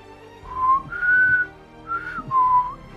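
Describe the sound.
A person tries to whistle the Black Widow whistle, a short tune of four clear notes in two pairs, the middle notes held slightly higher, with a brief pause between pairs and no talking.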